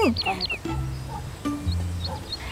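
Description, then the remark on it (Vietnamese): A bird sings a short run of quick, sweeping chirps, clearest at the start and returning faintly later, over a low background rumble and some murmuring. “Nè, chú chim Chú chim kia Ngưng hót đi Có cái gì mà vui vậy hả”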